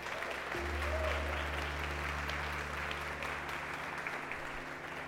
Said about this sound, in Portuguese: Você pode aplaudir o Senhor Jesus por causa disso.